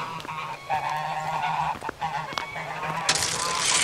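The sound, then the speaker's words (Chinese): A goose honks repeatedly in a series of loud, nasal, harmonic calls, with short breaks between them; a hissing burst of noise rises near the end. “大鹅，大鹅，等等我，我快擦完了。”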